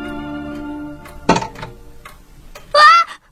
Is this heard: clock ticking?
yes